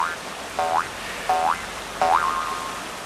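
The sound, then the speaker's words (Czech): Four twanging jew's harp notes played at a river weir, each a quick upward-sliding boing, spaced evenly about two-thirds of a second apart; the last one rings on a little longer. Moderately loud over a soft hiss, with no talking. “U toho hrajeme na brumli, takže když vezmeš tu brumli, jasně.”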